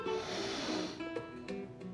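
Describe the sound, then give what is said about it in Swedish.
A deep, drawn-out breath in during a guided breathing exercise, loud, with an airy rush for about a second that fades into a few shorter, softer breathy catches. “Så andas in igen av den energin som vi vill få till oss.”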